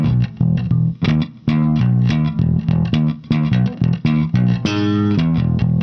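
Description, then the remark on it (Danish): A bass guitar played in a studio runs through a quick series of choppy low notes with a gritty, effected tone, loud with no voices. “Og jeg kommer ud fra Trangbjerg, jeg bor i en kælderlejlighed, og jeg har skæsvamp, og jeg spiller bas.”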